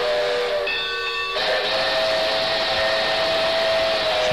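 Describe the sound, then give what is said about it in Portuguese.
A steam locomotive whistle on a steam train pulling carriages blows loud and steady with several harmonic tones, shifting pitch partway through and holding over a hissing wash of steam, with no one speaking. “É, daí o trem.”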